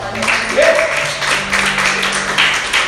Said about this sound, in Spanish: Alguien déle un aplauso al Señor.